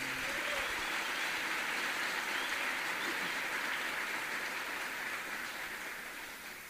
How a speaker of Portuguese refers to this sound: Vamos aclamar esse texto da palavra com uma salva de palmas, meus irmãos.